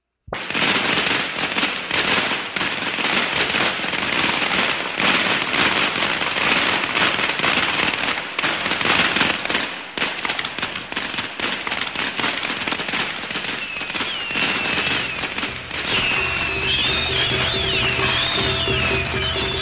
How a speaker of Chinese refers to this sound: 听着这个喜庆的鞭炮声，我们就知道快要过年了。我们在大年三十和大年初一的早上是一定会放鞭炮的啊！有了鞭炮才像过年嘛。